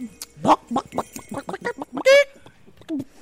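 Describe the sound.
A person imitates a clucking chicken, a rapid series of short, voiced clucks ending in a loud, drawn-out squawk, then a couple of softer clucks trailing off, fairly loud.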